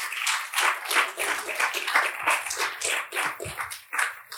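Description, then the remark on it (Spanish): A church audience applauds together for the Lord during a service, a dense, steady wash of many hands clapping for several seconds, with small swells in loudness and no voices standing out. “En un aplauso, Señor, esta tarde, esta mañana.”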